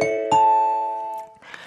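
A bright ding-dong-dang correct-answer chime on the Korean radio show Lee Gi-kwang's Gayo Gwangjang on Cool FM 89.1: quick bell-like tones struck in succession, ringing out clearly and sustaining before fading, followed by a brief burst of softer noise.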